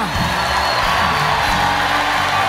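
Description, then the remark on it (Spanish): A large crowd shouts and cheers loudly all at once, a dense, continuous roar of many voices with scattered whoops rising above it, filling the whole moment without a break. “Hazlo fuerte. Grita, grita, grita, grita, grita, grita. Que se escucha afuera.”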